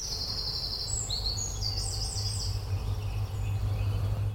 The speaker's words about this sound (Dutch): Winterkoning? Ja.